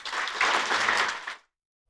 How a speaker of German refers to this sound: Gebt ihnen einen warmen Applaus.